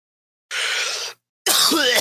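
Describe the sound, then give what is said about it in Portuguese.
Two loud bursts of harsh, breathy coughing into a microphone, separated by a brief silence, the second one rougher and more strained. “Mano, para de tossir no, no microfone, cacete.”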